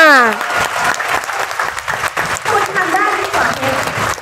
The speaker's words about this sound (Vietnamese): tuyệt vời tuyệt vời hãy dành một tràng pháo tay cho chính tất cả chúng ta